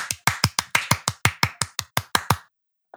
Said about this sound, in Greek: Χειροκρότα, χειροκρότα. Ε, χειροκροτάω.